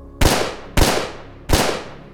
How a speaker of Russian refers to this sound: У Джона-младшего оказалась хорошая реакция, и он попытался увернуться от выстрелов.